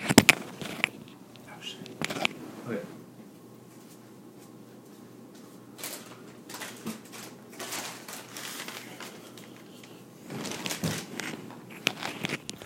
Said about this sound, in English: Let me get my cards out. I fucking have the fucking paper because I always forget what the fuck they are.